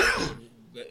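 A single sharp sneeze bursts out loudly and quickly fades, followed by a soft breathy sound a moment later.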